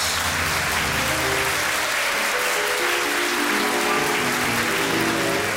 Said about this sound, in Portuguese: Ah, com Liszt a ser levado em braços para o palco pelo tenor, no meio de aplausos e ovações.